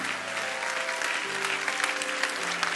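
audience clapping hands

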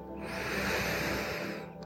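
deep breath in

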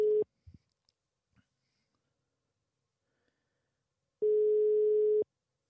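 telephone ringing tone

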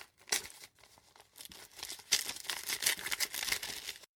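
envelope being torn open

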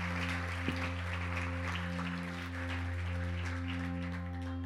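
audience applause

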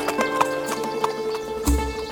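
horse hooves trotting

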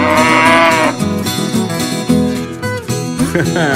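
cow mooing

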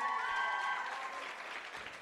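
audience applause

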